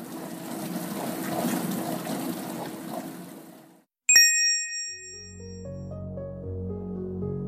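A dishwasher churns and swishes water steadily for several seconds, then falls silent; a single bright electronic ding rings out, followed by soft, low humming tones. No one speaks.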